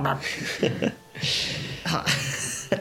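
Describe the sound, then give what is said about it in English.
A voice imitates Murloc noises, a gurgling, burbling creature sound, in a few wordless bursts separated by brief pauses. The bursts are fairly loud, with a raspy, breathy texture throughout. “Murloc uh, noises.”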